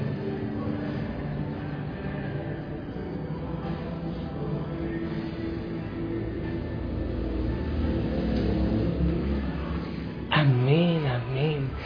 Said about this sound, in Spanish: Hoy te tocaron los aviones.